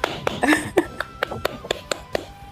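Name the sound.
clapping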